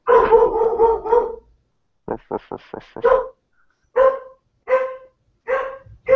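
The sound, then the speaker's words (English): A female dog lets out a drawn-out howl, then a rapid burst of sharp barks, followed by several more loud barks spaced about a second apart, reacting to voices she doesn't recognize. “What's, what's your dog's name?”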